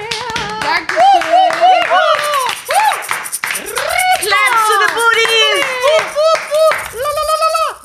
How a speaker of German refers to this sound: Ja, toll, dass ihr dabei wart, Girls. Applaus für euch selbst.